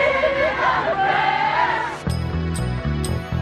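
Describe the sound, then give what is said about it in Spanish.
A crowd of people in a London park spontaneously sings the chorus of a song together, started by a man singing at the top of his voice, in a loud, blended chorus, then gives way to a steady musical accompaniment with bright, rhythmic beats about every half second. “toda la gente que estaba a su alrededor espontáneamente respondió al estribillo de esta canción”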